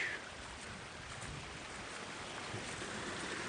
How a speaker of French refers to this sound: Petit torrent là qui passe entre les arbres avec une pancarte Office national des forêts, réserve de pêche, ruisseau pépinière.